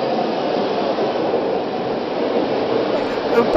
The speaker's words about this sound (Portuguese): Eu estava em um metrô. E agora estou em trem?